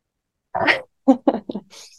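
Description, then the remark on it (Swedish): A sudden, forceful breathy 'haaa' exhale, voiced and raspy, done as the yoga lion's breath with the tongue stuck out as far as possible, lasting a moment after silence, followed by a few short vocal bursts and a soft hissing breath. “Vi ska bara andas in, sträcka ut tungan så långt som möjligt och säga ah.”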